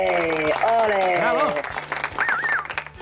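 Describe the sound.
An audience applauds steadily for about three seconds after an improvised literary performance. A dense wash of clapping, with voices and rising, wavering cheers or whoops riding over it.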